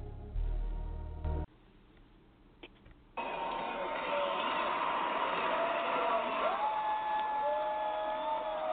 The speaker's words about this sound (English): You see, I promised the sound. We got the Mets chant in the background. Sadly, this might be the last time you hear this chant for a little while.